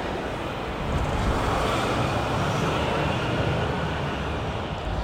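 A truck rumbles past, a steady, loud roar of engine and road noise that fills the whole few seconds, swelling slightly early on, with no one speaking.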